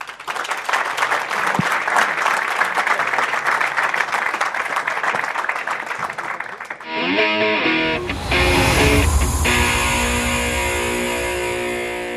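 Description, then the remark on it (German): Warm, sustained applause from an audience as the performers leave the stage, a dense crackle of many hands clapping for about seven seconds before giving way to swelling music with sustained tones. “auffällig warmer Applaus, als wir die Bühne verlassen haben.”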